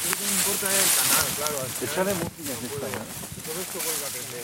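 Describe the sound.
Several voices talk and call out over a steady wash of rushing river water, as people in the early morning clear debris from the local river that supplies the community with water, moderately loud.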